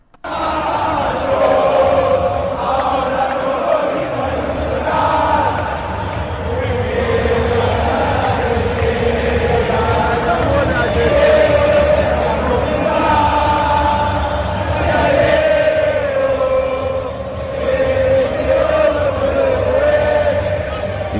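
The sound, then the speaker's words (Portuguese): A large stadium crowd of Argentine football fans chants and sings in unison during a match at a stadium in Qatar, a loud, continuous roar of voices with rhythmic swells that carries on steadily for the whole stretch. “Os argentinos fizeram uma festa, uh, e festa depois do jogo, uma festa absolutamente justificável, mas a torcida argentina, desde o início do jogo, parecia que o jogo era na bomboneira.”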